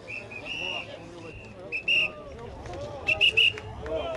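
Sharp, high-pitched whistle blasts from gendarmes and Tour stewards clearing the crowd for riders arriving at the time-trial finish in Rocamadour, in the Dordogne valley, ring out repeatedly over a steady crowd murmur, a longer blow early on, then a cluster of short, loud bursts near the end.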